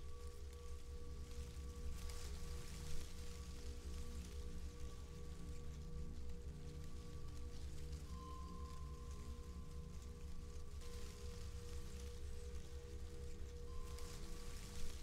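Steady rain pours down in a continuous, even hiss, with a low droning hum running underneath the whole time and no voices.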